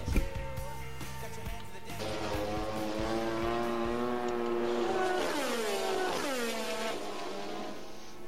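Loud, high-pitched Formula 1 race car engines scream and rev continuously, their whining pitch climbing and dropping sharply as cars shift gears and sweep past.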